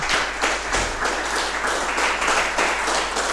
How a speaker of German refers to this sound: Funktioniert, ne? Bitte? Na, das mit dem Applaus funktioniert schon mal, ja.